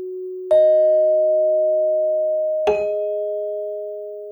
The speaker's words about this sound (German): Die einzelnen Töne, die dabei entstehen, sind so, ja, so Glockenklänge. Die markieren immer, wenn ein Eintrag hinzukommt.